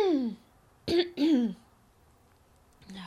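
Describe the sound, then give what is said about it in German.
Two quick coughing bursts with a throaty, clearing edge from a person who coughs after laughing, coming back to back after a brief trailing vocal sound, then a moment of quiet before a voice starts again. “sorry wenn ich immer so viel lache, muss ich auch immer so viel husten.”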